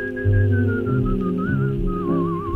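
A person whistles a steady, wavering melody with a slight vibrato, fairly loud and close, over a low sustained humming backdrop of tones. No one speaks.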